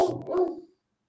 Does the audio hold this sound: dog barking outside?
yes